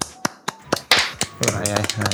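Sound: brief hand clapping applause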